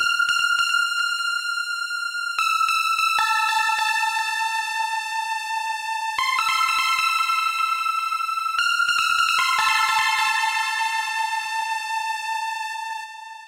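A flute plays a bright, high melody alone, portraying the bird in an orchestral story: sustained notes that step between pitches and sometimes trill quickly, clear, with no talking over it.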